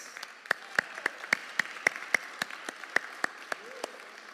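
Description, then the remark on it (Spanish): An audience applauds for the mothers on Mother's Day, the clapping settling into a steady, even rhythm of sharp claps over a dense wash of hands, moderately loud, with no clear talking. “Así que para todas ustedes, feliz Día de las Madres y quiero desearles de todo corazón y este aplauso es para ustedes.”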